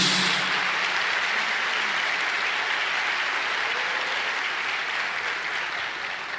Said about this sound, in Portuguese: Um aplauso para Jesus Cristo. Um aplauso para Jesus.